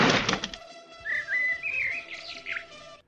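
A bird's wings flap in a quick, noisy flurry, then the bird gives several short, bright chirps and whistled tweets, with no one speaking.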